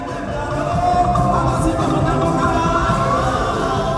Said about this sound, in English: One place the good people of Port Harcourt gather often is the many, many large churches throughout the city we're hearing a high life gospel band playing for thousands under a stadium sized tent on a Sunday morning at the Omega Power Ministry, OPM.